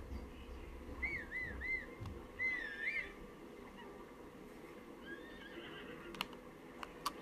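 A horse whinnies twice in quick succession, its wavering high-pitched neighs standing out over a low rumbling background, followed by a fainter, shorter whinny and a few sharp clicks.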